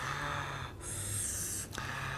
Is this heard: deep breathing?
yes